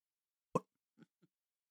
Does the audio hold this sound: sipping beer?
yes